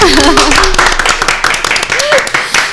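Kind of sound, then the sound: crowd, applause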